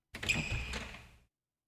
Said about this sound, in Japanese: 重厚な作りの観音扉である。女性はインターホンを押した。しばらくしてその扉は開かれた。